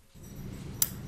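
A single crisp, bright click of a pair of slender Victorian-era metal forceps, once belonging to abortionist Inez Burns, snapping shut over a low steady hum with no voices.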